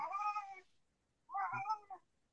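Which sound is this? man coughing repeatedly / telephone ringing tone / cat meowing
cat meowing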